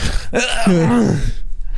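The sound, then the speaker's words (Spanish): A voice imitates the deep, raspy, heavy breathing of Bigfoot behind bushes by a forest campsite: one long, strained vocalized breath with a groaning, gasping quality, fairly loud, trailing off into quiet. “Y el sonido de pies corriendo fue sustituido por el de una respiración profunda, rasposa y pesada.”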